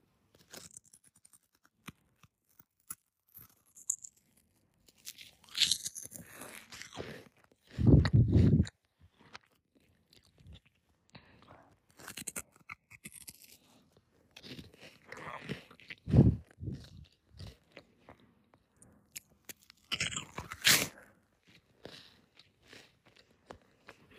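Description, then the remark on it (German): Crisp crunching as someone bites into and chews a crunchy rice cake, with sharp loud bites around a few moments and quieter rustly chewing in between, no talking. “wollt ihr nochmal so ein ASMR? Wenn ich will, der skippt jetzt einfach, weil das wird jetzt richtig crunchy.”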